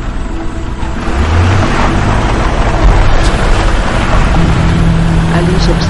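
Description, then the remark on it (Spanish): A white Hummer's engine revs and pulls away, a deep throaty rumble with a low tone climbing in pitch early on, over steady loud road and tire noise that never fades. “Sube la ventanilla y se marcha en su hammer blanco.”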